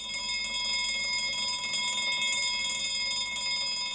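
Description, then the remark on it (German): A bell rings continuously for about four seconds, a bright, sustained metallic ringing at steady loudness, clear with no voices, as a bell is revealed under a number in a game. “Da haben wir eine Glocke.”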